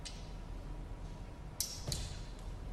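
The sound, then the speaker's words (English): A wooden staff is snapped in two by the Lord Chamberlain at Queen Elizabeth's coffin at Windsor Castle, echoing over flagstones and stained glass, giving a pair of sharp, dry cracks about a third of a second apart, fairly faint against a low, steady background rumble with no voices. “The noise bounced out across the flagstones and the stained glass as the Lord Chamberlain broke a stick,”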